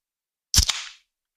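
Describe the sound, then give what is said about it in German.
A bottle of Gösser beer is opened: a sharp cap pop, a quick second click, then a brief fizzy hiss of escaping gas that fades within half a second. No voices. “Äh, ich habe mal wieder äh, mein Standardbier genommen. Entweder ich nehme ein Backscreen Lemon oder ich nehme einen Gösser. In diesem Fall ist es ein Gösser. Ich öffne das.”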